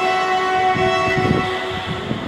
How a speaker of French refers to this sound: Vous entendez les bruits de la ville, Ouais, la ville qui bouge, qui vit, qui se crée, se décrée.